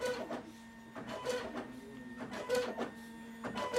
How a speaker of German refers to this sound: Wir haben jetzt hier gerade einen kleinen Raum gehabt, wo ein Drucker kleine Karten ausgedruckt hat.